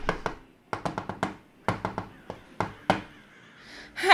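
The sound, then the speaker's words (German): Energetic knocking on the locked glass door of the Nadel und Faden shop: about a dozen sharp, loud raps in quick bursts of three to five, separated by brief pauses, with no voices, before a short rough noise at the end. “Ja, der Laden ist verschlossen. Ich klopfe. Ich klopfe sehr energisch.”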